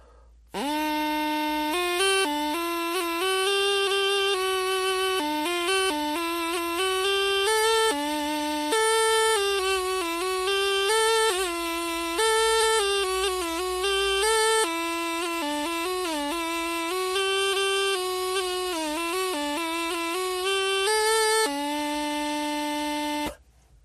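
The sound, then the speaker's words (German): A French folk melody played on a dandelion whistle: a loud, buzzy, reedy tone moving through a steady string of held and stepping notes for about twenty seconds, with no voices. “mit einem französischen Volkslied, gespielt auf einem Löwenzahnpfeiferl.”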